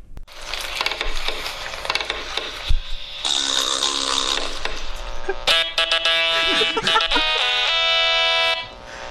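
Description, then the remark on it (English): A short fox-themed jingle sting contributed by a reader, Dom Curry: a busy, clattering rush of noisy texture gives way to bright, sustained brassy chords that swell briefly and then cut off sharply. No one speaks. “First up is Dom Curry with his magnificent fox sting.”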